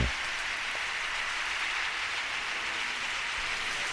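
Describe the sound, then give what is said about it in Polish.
Steady, dense applause from an audience: a continuous wash of many hands clapping at an even level, with no individual claps standing out and no voices over it. “Zostawiam te brawa specjalnie.”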